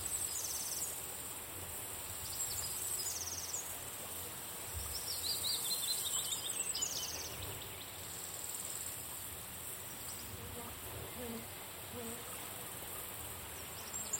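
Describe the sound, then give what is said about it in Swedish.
Birds chirp and sing from the treetops over a steady, high-pitched insect-like buzz, with a brief descending trill partway through; the scene is fairly quiet and there is no talking. “Uppe i trädens kronor sitter fåglar och kvittrar och luften är fylld av deras sång.”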